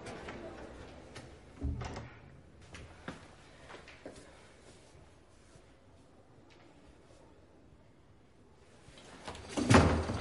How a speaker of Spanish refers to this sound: Cierra la puerta.